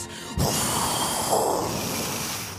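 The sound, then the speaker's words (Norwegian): A voice imitates a creature breathing out its icy breath over a fallen enemy, a sharp onset followed by a steady breathy hiss that holds loud for a couple of seconds with no talk. “puste ut ispusten sin over nidingen som Ninn felte, Udrell og Ninn.”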